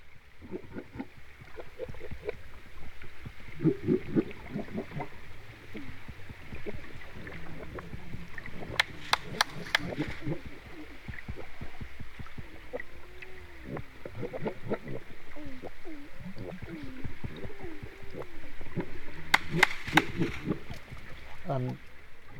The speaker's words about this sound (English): i had my hydrophones, I had uh, you know dropped over the side of the, of the boat, and managed to record the sounds of of grey seals all swimming underneath underneath the water, um, all around the boat.